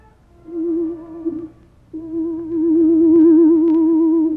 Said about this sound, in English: Presently, from far away, there came the faint sound of a horn.